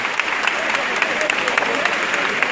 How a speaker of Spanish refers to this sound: Y la plaza que está llena en aplauso. Ahora se vuelve otra vez el silencio.